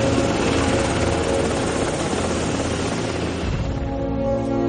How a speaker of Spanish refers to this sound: El helicóptero sobrevuela por encima y todos alzan la vista para verlo pasar.